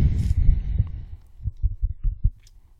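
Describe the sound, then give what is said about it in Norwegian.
Heavy breathing straight into a microphone by a man thinking hard over a quiz question: a long, muffled, low rushing breath followed by five or six short, thumping puffs in a steady rhythm, with no talking. “Nå pustes det tungt inn i mikrofonen her.”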